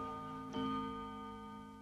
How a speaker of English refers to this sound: As the clock chimed two, Mr. Bumbledrop started to make his toy boy.